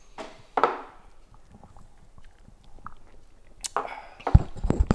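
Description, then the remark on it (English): A shot of liquor is knocked back after a toast of cheers: a sharp clink-like burst, a quiet pause with faint mouth noises, then gulping and a breathy exhale at the end. “take this last shot. Cheers.”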